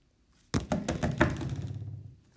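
Loud scratching against the wooden door of a cabin, a rough run of several quick strokes and bumps lasting about two seconds, then a final scrape at the end, with no talking.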